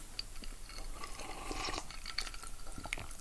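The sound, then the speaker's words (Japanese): Rain pattering outside in a steady, irregular patter of drops with a faint watery hiss underneath, moderately quiet, with no one talking. “結構ペタンペタンって言ってんね雨音がね”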